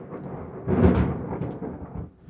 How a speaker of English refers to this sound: That's proper stormy weather.